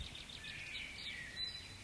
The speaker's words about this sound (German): Heute schickt uns die Jagdgöttin nichts mehr. Nur zwitschernde Vögel,